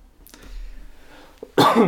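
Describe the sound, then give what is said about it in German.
A loud cough bursts out near the end, after a softer, brief throat sound earlier on, with no talking around it. “ich muss schon husten.”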